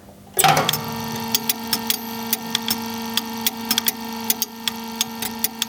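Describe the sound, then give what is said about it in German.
An electric motor of an installation, switched on manually, starts up with a thump and hums steadily, while sharp clacking relay contact clicks repeat irregularly over it, fairly loud, with no voices. “Man hört also jetzt den Elektromotor und das Klackern der Kontakte.”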